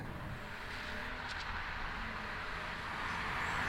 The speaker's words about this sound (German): Sie hören ein Auto, danach hören sie Schritte.